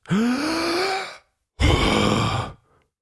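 A deep, loud breath drawn in, a short pause, then a long, forceful breath out, as a patient breathes for a doctor's stethoscope check, with no talking.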